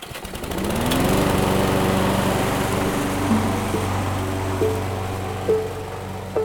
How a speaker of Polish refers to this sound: Przestawił przewody między zbiornikiem paliwa a silnikiem, inaczej niż przewidywała konstrukcja, i odpalił kosiarkę.